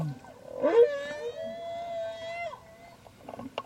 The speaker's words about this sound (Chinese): 好，其实大家注意听哦，所有的鲸鱼在唱这一句的时候，大家都这样唱：低高高高高高，低高高高高高。哦，这大家就像唱指定曲一样，都要唱同样的这种曲调。